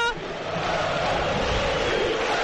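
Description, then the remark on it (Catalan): A large stadium crowd of thousands of Badalona supporters at the Olímpic applauds and cheers as the Penya players depart, a dense, steady roar of clapping and voices that stays loud and unbroken throughout. “I ara sí, els jugadors marxen aplaudits per aquests milers i milers de seguidors badalonins que han vingut avui al, a l'Olímpic.”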